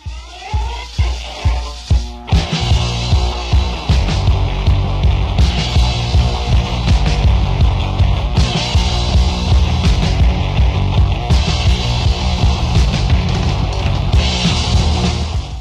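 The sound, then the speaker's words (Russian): A recording of a Filipino punk rock band in its original lineup opens with a couple of seconds of steady, evenly spaced drum hits, then crashes into a loud, dense full-band section with driving, distorted guitars that barely lets up. “Послушайте, как звучали филиппинцы в оригинальном составе.”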